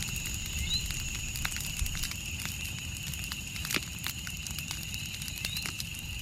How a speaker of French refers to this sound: Je vous propose donc de vous mettre dans l'ambiance. On est dans une forêt. Sauf que c'est la nuit. On a fait un feu de camp.